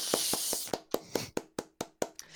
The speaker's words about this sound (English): All right, that deserves a clap